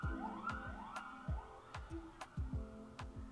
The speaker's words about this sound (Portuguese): Vamos esperar a ambulância passar.